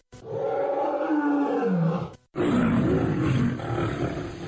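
A lion roars twice in deep, loud, drawn-out bellows, with a short pause between the two roars and no other sounds around them.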